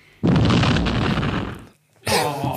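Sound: explosion sound effect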